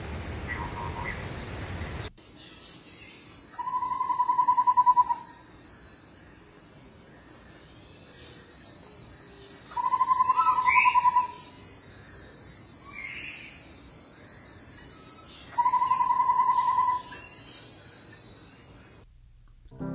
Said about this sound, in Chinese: 小弯嘴画眉，这种鸟的叫声多变。曾经有小弯嘴画眉模仿邻居水树家的电铃声，水树还急急忙忙地去开了门几次，后来才发现是被戏弄了。我们来听两种叫声。